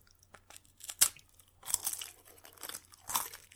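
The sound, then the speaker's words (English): Someone bites into and chews a crunchy snack, with several sharp crackly bursts in an irregular rhythm and no talking. “Okay, let's let's hear some crunch from the other side.”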